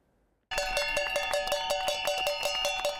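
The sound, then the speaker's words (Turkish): Rapid, continuous clanging of empty metal cooking pots being struck by retirees making their voices heard, bright and ringing with a steady rattling rhythm, loud after a brief quiet start, with no voices. “Bu emeklinin boş tenceresi.”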